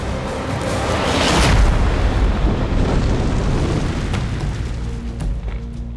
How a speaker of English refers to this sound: Kabra Khan hit the ground with a massive booming thud, crushing the fire and just barely missing Hunapu and Shibalanke. The impact shook the earth so violently that the twins were thrown into the air.